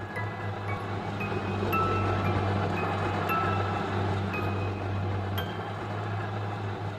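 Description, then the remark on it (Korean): A blender runs steadily in a kitchen in the morning, making juice, its motor giving a continuous low whirring drone with a grainy rattle over the top, holding an even level throughout with no voices. “그런데 부엌에서 이미 믹서기가 도는 소리가 들려오고 있었다.”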